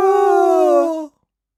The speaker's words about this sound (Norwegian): Det høres ut som det er flere kuer noen plasser.